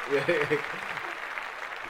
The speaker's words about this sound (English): we're like four subscribers away from twenty five thousand subscribers on YouTube. Four, uh, okay, yeah. let's clap that.